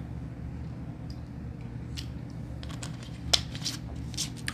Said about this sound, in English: Guzzle some water here and get going.